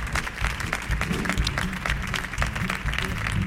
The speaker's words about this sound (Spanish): Señora, señora, vamos a darle otro fuerte aplauso a José Manuel Poga. Otro fuerte aplauso. Otro fuerte aplauso. Merecido aplauso. Otro fuerte aplauso.